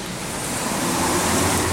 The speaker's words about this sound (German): Falls ihr euch fragt, ja, es regnet immer noch.